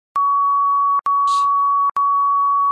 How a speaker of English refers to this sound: And then this series of tones will start the all out speed intervals.